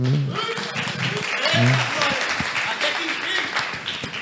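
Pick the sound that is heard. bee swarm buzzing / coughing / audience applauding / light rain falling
audience applauding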